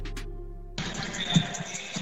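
Basketballs bounce on a hardwood court at the Barclays Center in New York with scattered, irregular thuds, heard through the broad, noisy wash of a busy arena with sound from the speakers. A short stretch of low hum comes before it.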